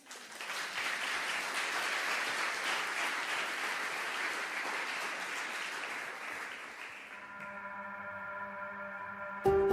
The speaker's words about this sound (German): Seid ihr ready für den Text? Dann lasst uns Paulus und Timotheus einen Applaus geben. Come on.